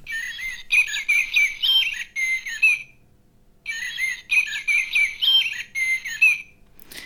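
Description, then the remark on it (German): A recorded blackbird song from a plush toy, played by pressing it, sounds in two bursts of warbling, fluty phrases with a short pause between, clear with no talking, ending in a brief click. “du kannst ja gerne mal so eine Amsel ähm, ja, anschalten, so wie wir es vorhin auch gehört haben.”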